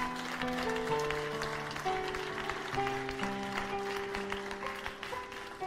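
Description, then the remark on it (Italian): An audience claps steadily and densely for several seconds in praise of the Lord, the crackling applause layered over sustained keyboard chords that hold and shift underneath. “Fai un applauso di lode al Signore.”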